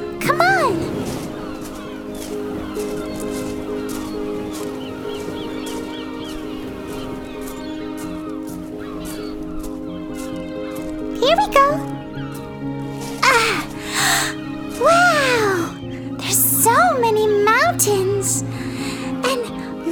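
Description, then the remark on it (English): Many seagulls calling, a handful of harsh, swooping cries bunched together in the second half, loud above a steady humming background. “Do you hear that? I hear seagulls.”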